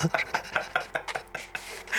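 Pieces of glass clink together in a quick, steady series of about a dozen short, bright taps, moderately quiet, with a brief scraping rustle near the end.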